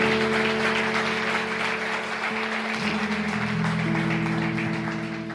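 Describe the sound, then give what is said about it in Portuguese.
An audience applauds the Lord Jesus loudly, clapping in a dense, steady wash for several seconds, while sustained low keyboard chords play underneath and shift partway through. “Vamos aplaudir ao Senhor Jesus bem forte.”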